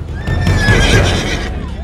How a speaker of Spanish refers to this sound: La represión comienza cuando la policía montada nos tira los caballos.